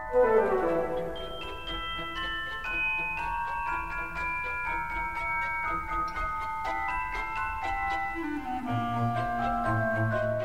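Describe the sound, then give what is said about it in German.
A celesta plays the Dance of the Sugar Plum Fairy, its bright, bell-like notes stepping in a steady, delicate rhythm, with low sustained accompaniment joining near the end. No one speaks. “Andererseits feiert hier ein brandneues Musikinstrument Premiere, die Celesta, ein Glockenspiel mit Klaviatur, erklingt im Tanz der Zuckerfee.”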